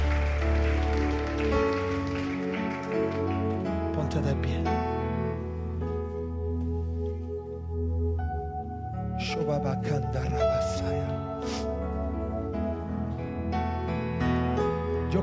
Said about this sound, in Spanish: Dale un aplauso al Rey de Reyes y Señor de Señores. Ponte de pie, mi hermano, ponte de pie.